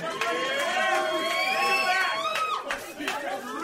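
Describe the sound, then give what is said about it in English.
A loud, steady roar of crowd cheering at a Vancouver Grizzlies basketball game in Vancouver, with many overlapping voices holding sustained shouts and yells that swell, then ease slightly near the end. “this is a good crowd because you're cheering a team that consecutively sucked.”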